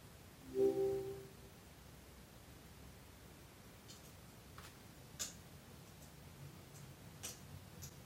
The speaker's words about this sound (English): I have it in Italian, of course. Alexa, metti il rumore del fuoco.